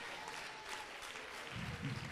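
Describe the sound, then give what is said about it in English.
An audience clapping hands in a dense, continuous wash of applause, steady and fairly loud, with a fuller low rumble of clapping swelling toward the end. “Clap your hands, clap your hands, clap your hands.”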